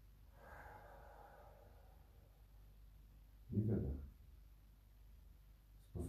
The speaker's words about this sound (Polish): Wdech i wydech.